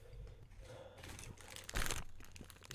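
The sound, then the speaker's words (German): Someone blows their nose into a tissue: crinkling paper rustles throughout, then a short, loud, breathy honk bursts out midway before the rustling continues. “Einmal kurz deine Nase putzen vielleicht”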